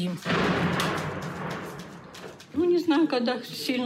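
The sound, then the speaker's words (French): A dense, rumbling wash of noise punctuated by repeated sharp cracks and bursts of artillery shelling and gunfire during the bombardment of Severodonetsk, heard from a basement, lasting about two seconds before a person begins speaking over quieter background noise. “Il y a des tirs tout le temps et des éclats d'obus qui volent partout. On peut entendre depuis le sous-sol.”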